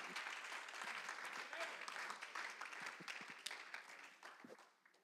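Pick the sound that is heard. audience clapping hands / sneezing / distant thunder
audience clapping hands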